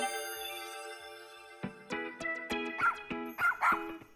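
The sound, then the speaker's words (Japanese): A dog barks in a quick series of seven or eight sharp, fairly loud yaps, following a brief high whine at the start. No one speaks. “あれ何か聞こえないあ何の鳴き声かわかるあワンちゃんだかわいいほらほら君の方を見てるよこのワンちゃんどんな顔をしてるどんな色をしてるかな”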